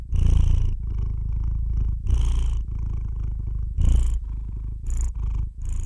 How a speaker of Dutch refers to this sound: Dan gaat die spinnen alsof het een kat of een ander beestje is.